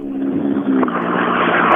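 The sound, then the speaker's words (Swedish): Hägg's Häggs Bildemontering rally car roars past on a gravel stage, loud and steady with a gritty, rough texture, holding full volume for the whole couple of seconds. “Här då rullar fram Häggs bildemontering.”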